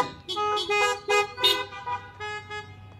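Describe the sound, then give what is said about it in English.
Several car horns honk repeatedly in overlapping bursts, a chorus of toots from multiple vehicles outdoors with a low engine rumble underneath, sounded by churchgoers during a church service on Memorial Day weekend. “So I'm glad to see we're keeping that alive with our holy honks.”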